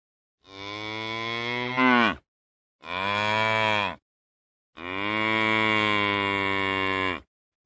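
A cow moos three times in long, drawn-out calls, each lasting a second or more with short pauses between. The calls are loud, with no other sounds.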